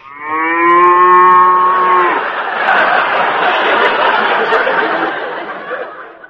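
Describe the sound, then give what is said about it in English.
A Holstein cow gives one loud, steady moo with a rich harmonic tone for about two seconds, which breaks into a rough, breathy, noisy bellow that carries on for several more seconds. “Those Holsteins can get pretty mean, you know.”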